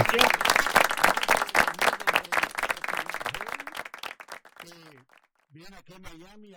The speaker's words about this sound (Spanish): Ya, ya se aplaudió, señor. Ya se aplaudió, ya, ya se aplaudió.